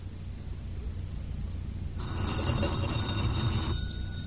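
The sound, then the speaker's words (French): A telephone bell rings in one sustained burst of bright, metallic trilling lasting under two seconds, clear over a low background rumble. “C'est le téléphone.”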